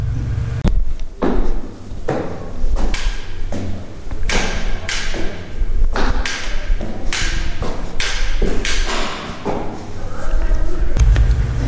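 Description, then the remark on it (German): Steady, loud taps or knocks strike about once a second, each followed by a lingering echo, giving the hollow, reverberant sound of a stairwell, recorded with an OM System device. “So, jetzt kommt der Beitrag, also jetzt kommt das Beispiel in Treppenhaus.”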